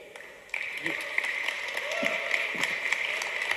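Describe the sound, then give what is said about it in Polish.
An audience at the Polish Cup Tasters championship award ceremony bursts into applause for the fourth-place finisher after a brief quiet moment. A dense, steady wash of many hands clapping holds at an even loudness, with a few voices faintly mixed in. “Brawo, aplauz.”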